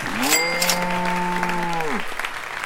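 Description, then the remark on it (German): Audience applause rustles steadily throughout, partly overlaid by a loud, sustained horn-like tone that swells in, holds for about two seconds, then drops away while the clapping continues. “großen Applaus”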